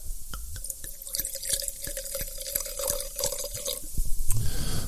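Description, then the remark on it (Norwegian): Wine poured into a glass, heard as a quick, even run of glugging drips over a steady ringing tone, ending in a short splashy burst. No one speaks. “Jeg må eh, Skal helle opp litt i, i glasset her.”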